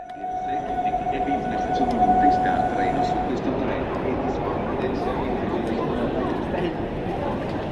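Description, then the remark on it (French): A train rolls along the rails with a steady rumble and clatter, a sustained high tone ringing through the first few seconds, and faint voices murmuring underneath. “J'avais 1500 km de train devant moi, il m'en reste 500.”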